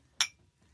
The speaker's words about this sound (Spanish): Oye, hacemos un salud para que se oigan nuestros vasitos. A ver. Salud ahí en casita también. Salud.